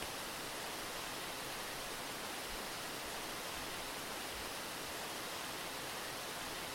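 rushing waterfall

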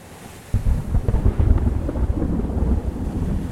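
thunderstorm with rumbling thunder

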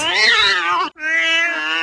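cat meowing

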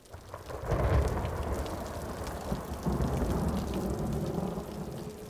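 rain and thunder

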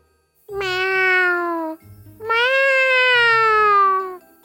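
cat meowing

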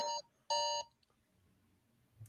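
phone alarm beeping

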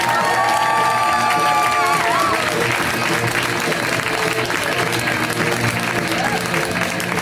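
audience applause and cheering

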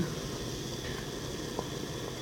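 water boiling

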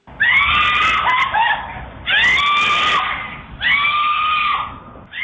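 woman screaming desperately

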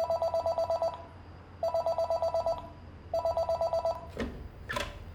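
desk telephone ringing

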